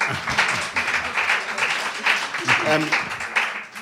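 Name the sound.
audience applause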